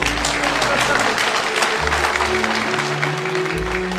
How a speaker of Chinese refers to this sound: 大家用热烈的掌声欢迎